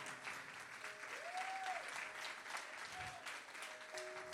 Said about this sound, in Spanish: Alguien le da un aplauso al Señor por eso.